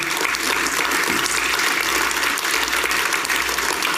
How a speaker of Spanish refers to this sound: Dale esa ofrenda de palmas al Señor.